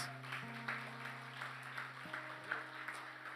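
A church audience claps steadily in a dense, continuous patter of many hands, applauding to God, while a low sustained musical drone with shifting tones plays underneath. No one speaks over it.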